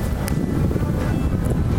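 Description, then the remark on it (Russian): Strong, cold autumn wind roars and buffets against the microphone outdoors, a steady, loud low rumble with gusty fluctuations throughout and no voices. “слышим, на самом деле, вот такой ветер, что даже нам холодно стало.”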